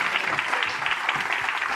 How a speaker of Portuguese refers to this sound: Vamos aplaudir.